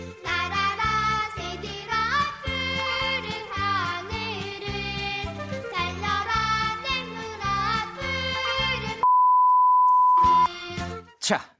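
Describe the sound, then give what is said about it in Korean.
A bouncy sung Children's Day song with full instrumental backing plays for a lyrics quiz, then a steady high-pitched censor beep about a second and a half long blots out part of the lyrics before the music briefly returns. “B 소리가 난 부분, B 처리된 부분에 들어갈 알맞은 말을 찾아주시면 됩니다.”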